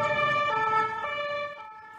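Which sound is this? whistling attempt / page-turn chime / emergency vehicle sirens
emergency vehicle sirens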